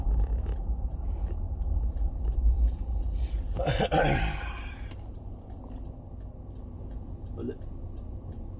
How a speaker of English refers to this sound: Come on, I can't see the car coming fast. Coming down a hill.